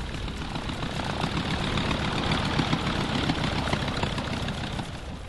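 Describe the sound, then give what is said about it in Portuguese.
A rough-running, shot-up airplane engine with fire coming out of it runs after landing on a runway, a loud, continuous rumble with a gritty low-end throb that holds steady from start to finish, with no voices. “Cara, aquele avião chega a sair fogo assim no motor, ele tá absurdamente é, é, baleado, mas você pousa aquilo ali na pista suave.”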